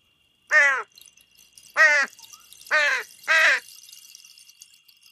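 Four harsh, rasping crow caws ring out, the last two in quick succession, with short pauses between calls and no other sounds around them.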